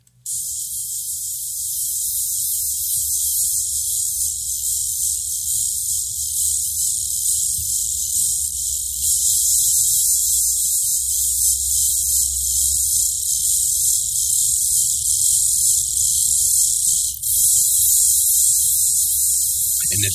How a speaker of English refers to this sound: sound you hear in the background there, that's the sound of its fangs rattling together, and that's the sound they make just before they strike.